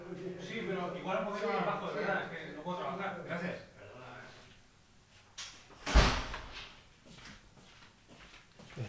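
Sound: door opening or closing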